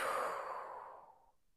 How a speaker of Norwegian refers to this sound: Vi gjør det der én gang til. Puster godt inn. Og hold pusten. og puste ut.